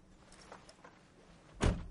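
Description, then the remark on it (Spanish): A car door at a petrol station shuts with a single solid, low thunk, breaking a quiet, faintly rustling background near the end. “Cierra.”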